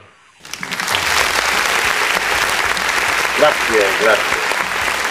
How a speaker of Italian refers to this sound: Oh, però anche un applauso.